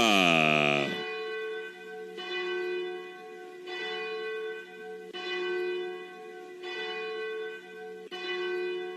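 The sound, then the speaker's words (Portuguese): A large bell of the Cathedral of Nossa Senhora Aparecida tolls slowly and steadily at 21:49, about six deep strikes roughly a second and a half apart, each ringing out with rich lingering overtones that overlap the next stroke. “Quando são 21 e 49 Bate o sino da Catedral da Nossa Senhora de Aparecida.”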